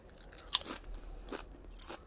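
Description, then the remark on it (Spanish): Crunching of fried potato chips being chewed on a terrace, a few crisp bursts spaced irregularly over a couple of seconds, with no talking. “Eso que suenan son patatas.”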